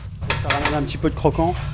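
Frog legs frying golden brown in a pan with a steady sizzling hiss, while metal utensils scrape and clink against the pan as it is stirred and a garlic, parsley and tomato mixture is briefly added.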